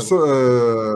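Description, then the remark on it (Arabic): A single sneeze: a short, sharp hissing burst followed by a loud, drawn-out voiced "ahh" that holds a steady pitch for nearly a second before cutting off. “آه، يرحمك الله”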